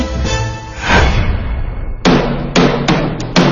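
A gavel strikes several times in quick, uneven succession to open a talk show, each sharp wooden knock ringing briefly, following a blurred, swelling wash of sound in the first two seconds.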